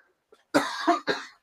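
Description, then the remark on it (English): A person coughs twice in quick succession, fairly loud, with a short rough burst trailing into a second harsher hack, no talking. “I like that you wrapped that up with, and yeah, because you had to cough.”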